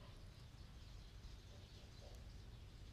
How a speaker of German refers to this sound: Und vielleicht hörst du die Vögel zwitschern im Hintergrund. Total verrückt.